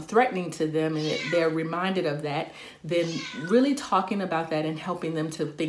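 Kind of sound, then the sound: animal, cat meowing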